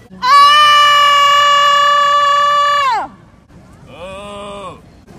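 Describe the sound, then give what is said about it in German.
A woman, a volunteer from a scream workshop, screams outdoors on a public meadow where people are sunbathing: a long, loud, steady scream for nearly three seconds, its pitch sliding down at the end, followed by a shorter, quieter second cry. “Das war die erste Freiwillige hier auf der Wiese, wo sich andere Leute sonnen und komisch geguckt haben, als sie angefangen hat zu schreien.”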